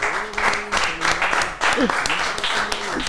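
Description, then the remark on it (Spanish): Steady applause from a live show audience, a dense wash of many hands clapping at a fairly loud level, with a few voices and a brief cheer rising through the noise. “Aplaudan, aplaudan”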